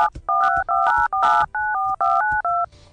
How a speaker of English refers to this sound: Yeah, I think the tones interfere with each other, so it's not as easy as, as I'd like it to be. I've actually tried making MP3s of touch tones that use every single tone at the same time, and that's never worked.